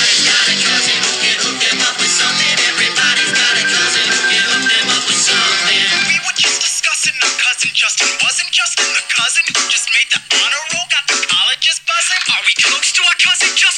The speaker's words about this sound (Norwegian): Han ringer fetteren, fetter ringer en kompis, kompisene sine, og så ender den telefonsamtalen opp med å skape en sånn veldig sånn hektisk låt, så bare sånn Du kan høre to sekunder.